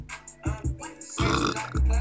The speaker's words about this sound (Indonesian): aduh aing sendawa nih